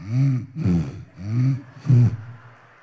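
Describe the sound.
A voice imitates snoring, making four loud, rasping snores in a steady back-and-forth rhythm that mimic drawing breath in and pushing it out, with no talking.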